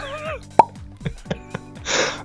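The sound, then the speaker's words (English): A voice imitates tennis ball hits as a live sound effect, with about four sharp mouth pops at uneven intervals, followed by a short breathy hiss, over a faint tonal background. “I'm wondering whether I could do a live sound effect. Uh, tennis there.”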